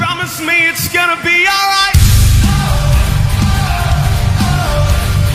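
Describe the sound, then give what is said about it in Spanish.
A progressive rock song, Australia's Eurovision entry, plays loudly, opening with a bright melodic line before a heavy full band with pounding drums and distorted guitars crashes in and drives on steadily. “Mira, vamos a empezar, con, a empezar con Australia, que tiene una canción que es un poco. es rock progresivo y suena así de bien.”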